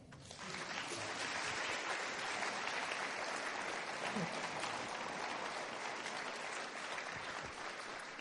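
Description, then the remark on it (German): Sustained audience applause for the band, a dense steady wash of many hands clapping at an even loudness for about eight seconds, with no voices rising above it. “Können wir einen Applaus haben für die Band?”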